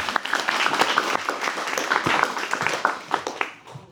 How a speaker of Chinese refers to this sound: 那掌声再次送给我们的